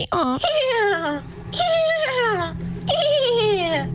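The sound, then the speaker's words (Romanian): A voice imitates a horse's whinny, with three high, quavering cries that slide downward in pitch, each shaky and slightly laughing in tone, fairly loud with brief gaps between them. “Mă rog, un cal care pare că râde puțin.”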